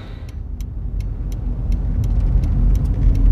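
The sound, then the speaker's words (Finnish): A car's engine rumbles low as it maneuvers slowly to parallel park, with a steady, evenly spaced ticking from its turn signal running throughout. “Mä näen, että sä oot siellä taskuparkkeeraamassa.”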